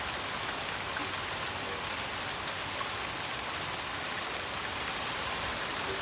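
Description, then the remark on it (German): Steady rain falls without pause, a dense, even hiss of countless drops pattering on a surface, continuous, with no voices or other sounds breaking through. “drei Sekunden Schnauke halten, dann kann man den Regen vielleicht hören.”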